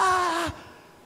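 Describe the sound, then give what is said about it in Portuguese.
A voice gives a brief, loud wailing cry that slides downward in pitch and breaks off after half a second, mimicking a crying child, followed by quiet. “Aí, ah, ah, daqui a pouco passa o choro, aí vai, ah, ah amigo, ah, vamos, vamos brincar.”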